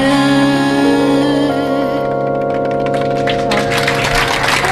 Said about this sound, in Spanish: Un aplauso, gracias.